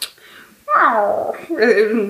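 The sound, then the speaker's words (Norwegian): A person's voice imitates a cat meowing, with two drawn-out, whiny meows in a row, the first sliding downward in pitch, fairly loud. “Å være liksom veldig sånn glad katt eller bekymra hund eller noe sånt.”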